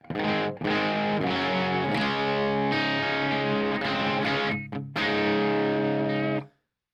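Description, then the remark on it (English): A distorted electric guitar plays thick, sustained chords through an overdriven Marshall-style amp with the reverb turned off. It is loud, with a couple of brief breaks between strums before ringing out and cutting off. “this is actually like the only Marshall style amp that I own, and it sounds really good.”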